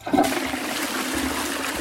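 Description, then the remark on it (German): A toilet flushes, with a sudden loud rush of water that keeps churning steadily and unbroken to the end. No one speaks. “Wie wichtig dieses Thema ist, das merkt man schnell, wenn man mal drüber nachdenkt, wie unser Alltag eigentlich aussehen würde, wenn wir keine WCs mit Wasserspülung, keine Kanalisation und keine Klärwerke hätten.”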